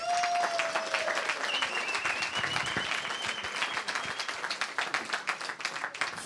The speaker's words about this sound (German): Der THW Kiel VIP Talk mit Torben Pöls. Großen Applaus bitte für Patrick Winzig.